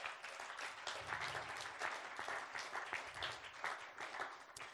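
A crowd applauds steadily, welcoming a man onto the stage, many hands clapping in a dense, continuous patter that stays fairly even in loudness throughout, with no voices standing out.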